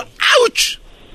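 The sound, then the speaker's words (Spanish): A single sharp, loud sneeze: a quick breathy intake bursting into a forceful explosive "choo," with a brief hissing tail right after. “Wow. Salud.”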